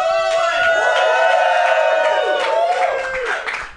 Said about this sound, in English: Oh, I think my fans are in the crowd tonight. Make some noise!